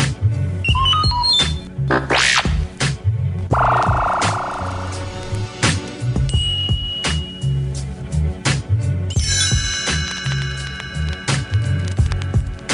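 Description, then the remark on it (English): A few short electronic computer beeps, signalling when to turn the page of a read-along book, chirp over a steady background music track, followed later by a bright chiming burst, all fairly loud with no voices. “You will know it is time to turn the page when you hear the computer sound like this.”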